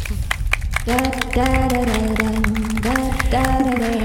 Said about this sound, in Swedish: en varm applåd.